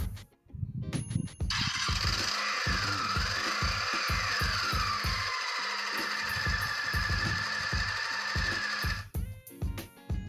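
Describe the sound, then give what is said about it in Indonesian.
A motorcycle engine runs loudly for several seconds, a rhythmic low putter under a harsh roaring drone whose pitch rises and dips as it revs, then cuts off abruptly. “coba kalau bunyi ini bunyi motor”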